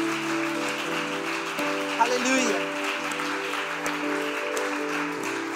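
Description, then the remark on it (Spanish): A church audience applauds steadily for several seconds after the preacher calls for loud clapping, a dense, even clatter of clapping over sustained keyboard chords, with one voice briefly calling out partway through. “Que aplauda fuerte, vamos.”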